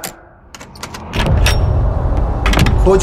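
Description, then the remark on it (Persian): A bunch of keys jangles in a few quick metallic clinks, then a louder, steady rattling rumble takes over and fills the rest. No one speaks. “خودم الان میام تو احمق ترسو دست کلیدی تو جا گذاشتی”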